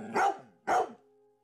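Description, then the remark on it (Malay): A dog barks twice in quick succession toward a car, two loud barks about half a second apart, followed by a faint lingering tone. “Mana bunyi anjing saya? Ha, ini. Dia menyalak, menyalak ke atas uh, ke, ke arah kereta kita orang.”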